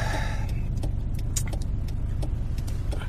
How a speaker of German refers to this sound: denn ich bin gerade in meinem Vierrad unterwegs